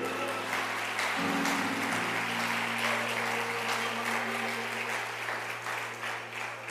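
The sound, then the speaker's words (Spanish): An audience at a sermon claps steadily for several seconds after the preacher invites applause, a dense, even patter of many hands that stays loud throughout, with low sustained musical tones humming underneath. “Aplausos si quiere.”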